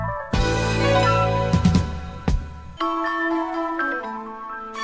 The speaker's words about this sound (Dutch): Hoe lang duurt het muziekje nog?